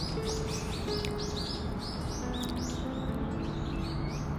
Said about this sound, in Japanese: 鳥たちもなんだか元気に朝の会議でしょうかと目立ってきたのがカラスの大声です。